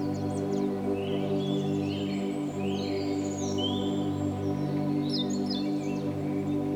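Birds chirp and twitter throughout, quick high calls darting in and out above a steady, humming background drone, with no talking.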